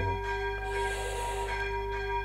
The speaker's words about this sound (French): La cloche. J'espère que vous m'entendez toujours. Je vois que ça monte, donc vous devez bien l'entendre. Impressionnant.